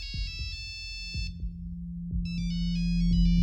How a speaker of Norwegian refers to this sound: Så ringer telefonen.